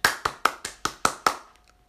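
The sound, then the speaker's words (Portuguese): Seven quick, sharp hand claps in a steady rhythm applauding people who learned new languages during quarantine, each a bright crisp smack, then the clapping stops and the sound trails off into quiet. “Desculpa, vou-te aplaudir.”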